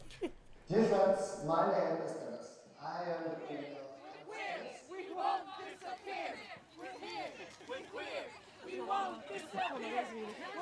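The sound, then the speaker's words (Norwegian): A crowd of voices chants "We're here, we're queer" together in a loud, rhythmic pride parade chant, with overlapping cheers and chatter, as the parade moves through the large exercise yard of Bredtvet women's prison. “Ja, dette var lyden av toget som gikk i den store luftegården.”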